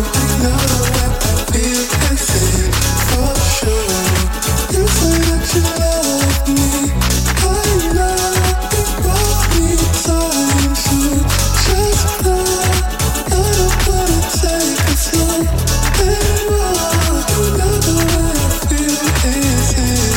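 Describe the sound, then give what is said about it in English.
A hip-hop track plays loud and continuous, with a steady thumping beat and heavy bass throughout, and no one talking over it. “Like I'm listening to these songs and I'm like I feel like I am in the club.”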